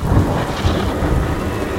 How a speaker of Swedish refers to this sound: Nej, jag sätter bara på lite åska.